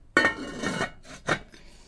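A heavy enamelled cast-iron casserole is handled, giving a sharp metallic clunk followed by scraping and rubbing, then another knock of metal and a faint clink, with no one speaking.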